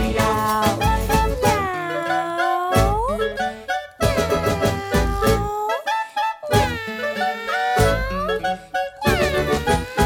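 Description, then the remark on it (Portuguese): Drawn-out, kitten-like meows, apparently sung by a voice imitating a cat, repeat in rising and falling glides over steady musical accompaniment, loud throughout. “gatinho malhadinho vai embora dizendo”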